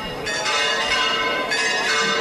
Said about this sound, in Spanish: Y estas campanas que están escuchando, que se funde con esa música en Blas Infante, con la Hermandad del Rocío de Sevilla, es el cachorro.